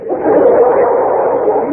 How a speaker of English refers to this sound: Stop tearing up that calendar. Now leave it alone.